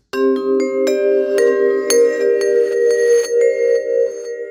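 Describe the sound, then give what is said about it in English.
A weird reverse plate reverb preset, an impulse response, on a bright, glassy, bell-like tone: a steady shimmering drone punctuated by several sharp attacks, with washy tails swelling around them. No one speaks. “A reverse plate sounds wonderfully weird.”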